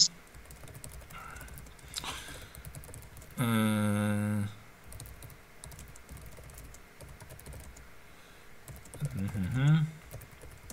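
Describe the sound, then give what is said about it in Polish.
Rapid clicking of computer keyboard keys as someone writes a message runs through the whole stretch, interrupted by a loud, steady harmonic hum around the middle and some tonal murmuring near the end. “Basi tylko coś napiszę.”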